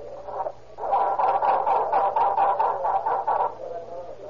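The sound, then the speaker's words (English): A car that has come to a halt on a nearly impassable Mexican road cranks over and over in a rapid, laboring rhythm without catching, the whirring starter pulses steady for a few seconds before trailing off into quiet. “Myers at the wheel listens to the discouraging sound of a laboring start”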